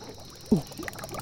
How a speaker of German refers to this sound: hinten blubbert schon wieder. Aber das scheint eine künstliche Blutbahn zu sein, die den Laufsteg hier umbindet.